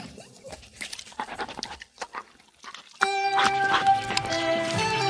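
Wet smacking and slurping of a dog licking a person, coming in quick irregular bursts for a few seconds before music abruptly starts and takes over.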